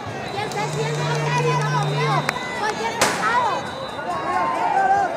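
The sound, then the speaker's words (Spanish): A firecracker, lit by either protesters or police, bangs sharply amid a noisy crowd at a street protest, a smaller pop just before the main loud crack, with many voices chattering and shouting in the background throughout. “Alguien no se sabe si los manifestantes o la policía encendió un petardo.”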